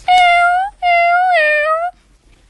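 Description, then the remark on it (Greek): Two drawn-out cat meows in quick succession, loud, each with a high, slightly wavering pitch, then a moment of quiet. “Μμμ, ας τα μεταμορφώσει καλύτερα σε γατούλες”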